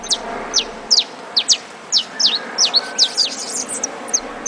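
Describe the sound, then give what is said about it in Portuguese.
A saffron finch (Canário da Terra), one of Brazil's best-loved birds, sings a lively series of sharp, bright chirps and short buzzy notes, clear, repeated rapidly over a soft background hiss. “É isso aí, o Canário da Terra com 47% dos votos.”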